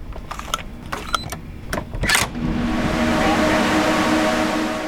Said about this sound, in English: Inside is the heart of the system. It's a huge white room filled with racks of powerful computers. The fan noise is deafening.